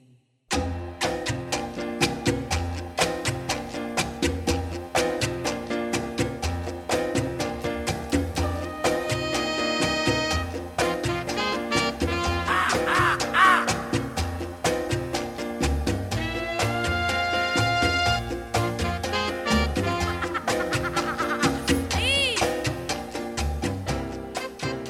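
Upbeat Latin jazz instrumental plays steadily at full volume on Jazz FM radio, with punchy horn lines over a driving percussion groove and bass, with no vocals throughout.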